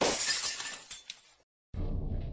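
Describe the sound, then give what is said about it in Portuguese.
A kitchen window's glass is broken, shattering loudly with a bright crash, followed by tinkling shards falling, a brief silence, then a dull low rumbling noise starts abruptly. “Porém, a sua situação apenas piora quando ele ouve a janela da sua cozinha sendo quebrada.”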